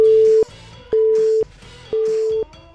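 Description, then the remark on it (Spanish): A telephone busy tone after a call is hung up: three steady mid-pitched beeps, each about half a second long, separated by equal pauses, loud and alone without any voices. “De todas formas, no me enteraba de nada y ya colgué”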